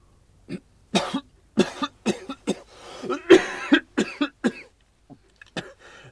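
A man coughs repeatedly in a rapid, uneven series of harsh bursts, with some throaty clearing mixed in, fairly loud, trailing off into a few softer coughs at the end.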